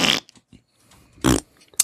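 Two short, loud, raspy fart sounds close up, separated by a stretch of faint sputtering noise, with another brief burst cutting in at the very end.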